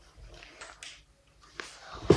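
A dog in a video game pants in short, soft, breathy bursts, with a sharper, louder huff near the end and no talking over it.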